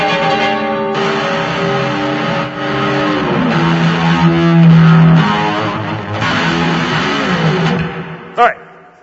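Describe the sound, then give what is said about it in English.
Loud, heavily distorted electric guitar chords ring out in a dense, clashing wash of dissonant notes, sustained for several seconds before a brief final stab and cutoff. “it's all the notes that are there. They're just discordant. They're dissonant. That's the sound of what happens after Babel”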